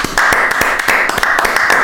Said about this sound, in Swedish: Så Glenn Schiller, om du skulle höra detta faktiskt så eh, får du här en applåd av oss faktiskt.